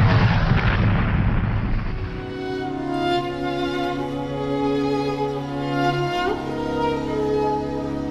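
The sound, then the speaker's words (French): A German fighter's machine-gun bursts hit Antoine de Saint-Exupéry's plane: a loud, roaring burst of gunfire and crashing impact fills the first two seconds, then a steady, sustained droning tone as the plane loses altitude holds to the end. No one speaks. “Quelques rafales de mitrailleuses, son avion est touché. L'un de ses moteurs s'enflamme, l'appareil perd de l'altitude, puis devient complètement incontrôlable.”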